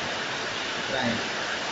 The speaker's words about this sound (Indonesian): Hujan ya.